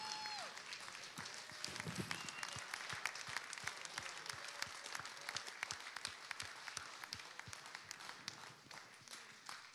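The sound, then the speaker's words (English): A standing crowd applauds steadily and loudly, dense overlapping claps filling the space for the whole stretch, with a few faint voices and cheers mixed into the sustained ovation. “Can we just one more time give them a bit? Come on, let's stand up to our feet.”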